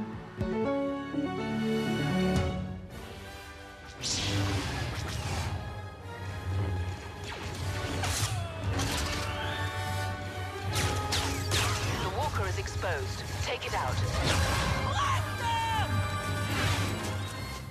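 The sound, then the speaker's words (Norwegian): Battle sound effects from the video game Star Wars Battlefront, presented at the annual E3 game fair in Los Angeles: a loud, dense, continuous barrage of blasts, crashes and impacts layered over a sustained musical score, with brief shouted voices here and there. “Det vi hører her, er lyden fra spillet Star Wars Battlefront, som ble presentert på den årlige E3-spillmessen i Los Angeles.”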